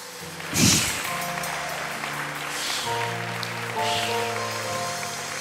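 An audience breaks into steady, sustained applause for Jesus, a dense wash of clapping with a sharp swell near the start, while sustained organ-like tones hold underneath.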